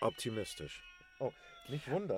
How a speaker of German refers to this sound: dieses Geräusch hier, das ist die Klingel von draußen.